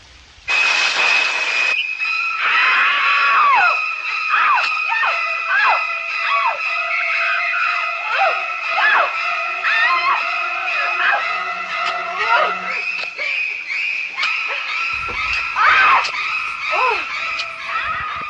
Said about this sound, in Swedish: Kan man kalla dem psykostråkarna? Ja, det, det, kan man väl definitivt göra. Eh, psykostråkarna eller badrumsstråkarna eller någonting sånt.